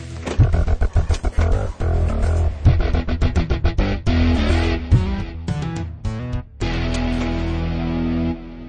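A heavy truck engine outside a house drones loudly and steadily as workers put up a giant piece of timber on the street, broken by a rapid series of clanks and knocks, then settles into a sustained rumble. No one speaks.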